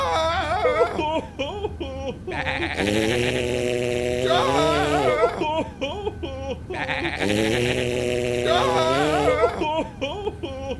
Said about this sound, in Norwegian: Nei, det er det med sauer, at hver gang jeg hører breking som høres ut som en sau, ja, ja, hver gang jeg hører det, så må jeg så sånn fryktelig bæsje.